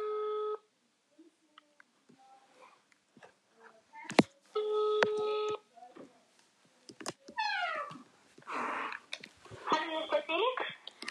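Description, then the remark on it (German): A phone ringback tone over a speaker, as someone calls their neighbour, sounds in two steady bursts with a pause between, mixed with faint clicks and a brief meow-like sound and some muffled voice. “Ähm, jetzt rufe ich mal meinen Nachbarn.”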